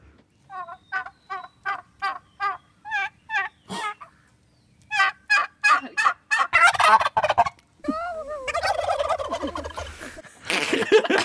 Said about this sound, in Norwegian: ok, la oss høre på en kalkun, da.